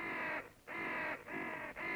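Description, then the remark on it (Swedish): A crow caws harshly several times in quick succession, loud, each raspy call separated by a brief pause, with no other sounds around it. “döda kråkor, kra, kra, Karons kråkor”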